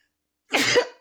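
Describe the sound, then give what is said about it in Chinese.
A single sneeze bursts out after a moment of silence, a sharp, breathy, hissing blast lasting about half a second before fading, with no talking around it. “开始打喷嚏了。”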